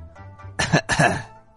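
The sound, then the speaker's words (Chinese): Two short, rough coughs in quick succession, the second slightly longer, like an awkward throat-clearing ahem, standing alone with no talking around them. “橡胶绷带尴尬的咳嗽了两声。”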